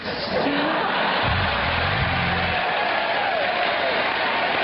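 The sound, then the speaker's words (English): An audience applauds loudly and steadily, a dense wash of clapping with crowd noise mixed in, and a low voice briefly murmurs beneath it partway through. “this very short skirt and she's talking, and the, the audience is going nuts.”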